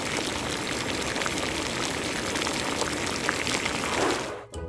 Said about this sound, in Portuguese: Tens toda a razão. É água a ferver.